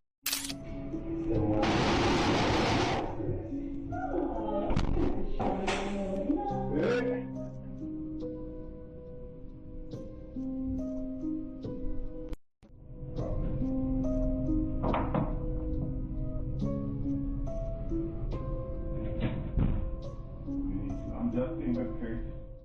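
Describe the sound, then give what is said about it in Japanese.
A burst of noise and a few sharp knocks as a chair clatters over and a refrigerator door bangs open inside a house, heard over steady, humming background music. “ああ、椅子が吹っ飛び、冷蔵庫も勢いよく開いてしまうぜ。”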